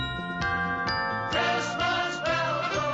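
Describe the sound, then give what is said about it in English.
Christmas bells ring out in a steady series of bright, ringing strikes, each chime layered with shimmering overtones that linger and overlap, fairly loud and with no talking. “Christmas bell goes.”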